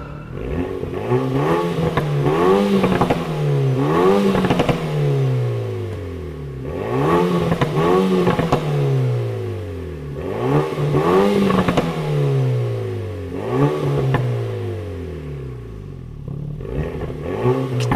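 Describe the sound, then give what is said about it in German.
A Renault Mégane R.S. Trophy engine revs hard again and again, its pitch climbing and dropping in about five loud bursts, with sharp exhaust pops crackling between the revs. “Es, ja, Knallfrösche. aber angenehme Knallfrösche, würde ich sagen.”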